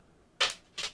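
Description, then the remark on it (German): Two quick, sharp clacks about half a second apart from a dog, like its claws tapping on a hard floor, otherwise quiet, with no talking. “Wenn ihr hier was klackern hört, das ist unser Hund.”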